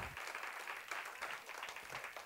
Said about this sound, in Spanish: Aleluya, denle un aplauso a Cristo. Denle un aplauso a Cristo. Aleluya, dele fuerte, fuerte el aplauso a Jesús en este día. Déselo fuerte.